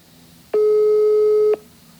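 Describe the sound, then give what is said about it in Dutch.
A telephone ringback tone while calling a monastery's general number: one loud, steady electronic beep lasting about a second, heard alone over a faint background hiss, with no answer and no voices. “Maar de telefoon blijft maar overgaan.”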